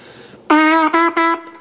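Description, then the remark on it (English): A wind instrument plays three sharply tongued notes on the same pitch, the player pushing the tongue toward the mouthpiece: a longer first note, then two shorter ones, each with a crisp attack. The playing is loud, preceded by soft breathy noise. “So when you tongue, you like push your tongue towards your uh, the mouthpiece, and then like like pushing it towards like like pushing your tongue at your lips.”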